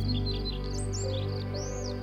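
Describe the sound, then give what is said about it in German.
Birds chirp in a quick series of high, sliding tweets, several calls close together, over a soft, steady low background drone with no talking. “Du kannst die Vögel zwitschern hören.”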